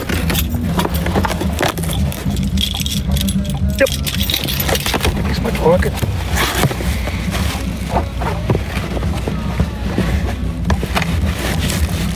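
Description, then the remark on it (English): Keys jangle and clink in a flurry of short metallic rattles and clicks while a box is worked open with the keys, over a steady low rumble, with people talking. “you have keys on you?”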